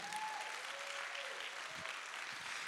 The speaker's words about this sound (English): Give the Lord a clap and a shout.